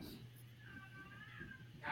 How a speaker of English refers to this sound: Is that a, is that a baby that's not mine? Oh, it's the cat like, the hell is happening?